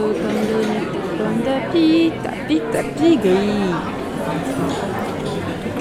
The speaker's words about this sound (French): on est au café Belga. Il y a des chiens, des enfants, des Belges, peut-être des Belges. Et surtout euh, des gens qui habitent Bruxelles, donc c'est pas forcément des Belges. Et qu'on est au rez-de-chaussée de l'ancienne maison de la radio, de la RTBF